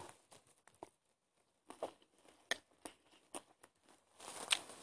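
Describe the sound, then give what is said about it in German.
Crunchy chewing of muesli with wet mouth smacks, a run of irregular clicks and crackles that grows louder and denser toward the end. No one speaks. “Und ab und zu wird es jetzt wieder so Schmatzepausen geben, weil ich ja am Futtern bin.”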